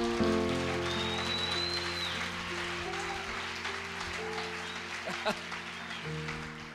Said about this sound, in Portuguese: Dê um aplauso ao Senhor por isso, cara.